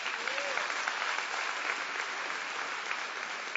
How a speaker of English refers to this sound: Give the Lord a hand clap for that.